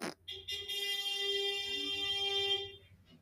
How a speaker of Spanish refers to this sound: Joder, me lleva a la verga. No sé si escucho ese pinche moto estúpida pendeja. Pero bueno. Espero que no se haya escuchado. Y si se escuchó, pues F.